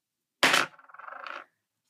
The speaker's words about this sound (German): Hierfür würfel ich, wie immer, und zwar